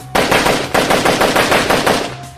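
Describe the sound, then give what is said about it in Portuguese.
A sustained burst of rapid automatic machine-gun fire from a rider on the back of a motorcycle unloading into an armored car, loud, with sharp shots repeating in a fast, steady rhythm for about two seconds before cutting off. “Uma pessoa guiando a moto e outra com a metralhadora atrás, descarregando no carro.”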